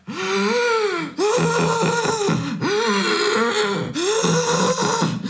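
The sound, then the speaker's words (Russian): A voice imitates heavy, strained breathing: four long, loud, groaning breaths in a steady rhythm, each voiced and effortful, with only brief pauses between them. “В том, что тебе настолько больно, приближаясь примерно к 8 минутам первые дней 20, что последние, вот, получается, три минуты я дышал примерно так.”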